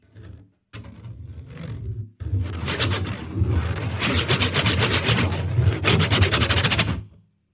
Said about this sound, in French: Mais pendant que eux rient, l'arbre, il a tout entendu. Lui aussi émet son grincement légendaire.